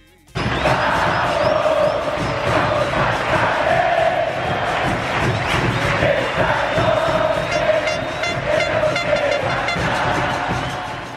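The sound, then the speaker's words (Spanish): A dense roar of football fans shouting and cheering in the curva norte (north stand) of a stadium, cheering on 'la academia', loud and continuous, with many voices chanting together and occasional sharper yells rising above the crowd. “Sin darme cuenta, ya estaba dentro de la curva norte gritando y alentando a la academia.”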